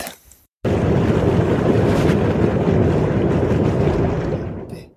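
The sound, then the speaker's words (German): A thermal hot spring bubbles and churns with a steady, roaring rush mixed with wind buffeting the microphone, loud, starting abruptly after a brief quiet moment and fading slightly at the end. “sondern eine von diesen ähm, thermischen Quellen, wo am blubbern ist. Es so Mischung zwischen Föhn, Blubber, Wind und so weiter.”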